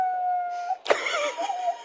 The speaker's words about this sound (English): a ambulance drove by.